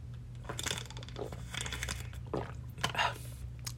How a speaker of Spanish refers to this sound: perdón, voy a tomar agua.